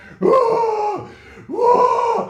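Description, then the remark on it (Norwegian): A man's voice imitates someone screaming in fits: two loud, strained, sustained wails, each just under a second long, separated by a short gasp-like pause. “under denne låta så er det da en mann som får de største anfallene noensinne. Han skriker sånn”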